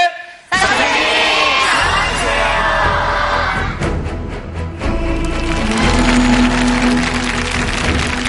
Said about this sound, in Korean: 제가 하나, 둘, 셋을 외치면 여러분께서 선생님 나와주세요라고 모든 청중분께서 함께 외치면 되겠습니다. 자, 하나, 둘, 셋!